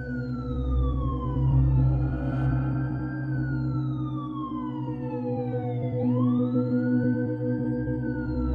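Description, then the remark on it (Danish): Wailing sirens of arriving ambulances and police rise and fall in long, slow sweeps, overlapping loudly over a steady low rumble of traffic, with no one speaking. “Kniven sad der stadig, da politi og hylende ambulancer ankom få minutter efter.”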